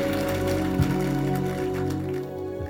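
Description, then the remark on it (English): An audience claps steadily, a dense patter of many hands that holds fairly even for the whole stretch over a sustained, droning musical tone underneath. “Those who are not clapping, I think you are part of those people.”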